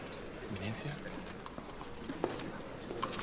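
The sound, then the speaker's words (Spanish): Horses' hooves gallop in a rapid, steady drumming as César rides with his helmet on and horsemen fight with swords, buried in a dense wash of busy background noise with a few sharper knocks standing out. “Imágenes de César galopando con el casco puesto y de jinetes luchando a espada se superponen al mapa de territorios italianos.”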